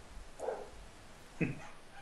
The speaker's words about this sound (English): Whose dog's out? That's the next door neighbour's dog, I think.